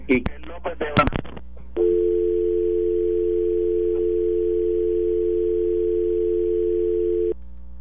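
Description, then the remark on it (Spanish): On a radio call-in show, a brief burst of voices from a caller in Orlando cuts off as the call drops. A steady, unbroken dial tone then hums at one pitch for about five and a half seconds before stopping abruptly. “se cayó la llamada interesante porque tú eres la segunda llamada en la tarde de hoy que cuya procedencia es Orlando.”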